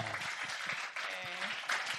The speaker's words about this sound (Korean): 박수 한번 주세요!